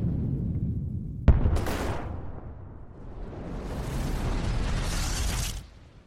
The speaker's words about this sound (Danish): Det må jo have set helt vildt ud, dengang en planet bare hamret ind i jorden.